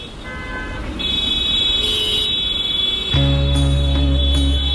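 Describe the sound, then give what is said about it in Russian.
Steady roar of idling trucks and traffic in a jam at the entrance to the port city of Novorossiysk, with car horns sounding; a loud, long horn blast joins partway through and holds to the end. “Пробка на въезде в Новороссийск – дело обычное. Фуры выстраиваются в вереницу у портового города ежедневно.”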